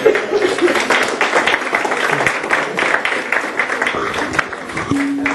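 A crowd applauds steadily for several seconds, dense overlapping clapping, with a few scattered voices and light laughter mixed in.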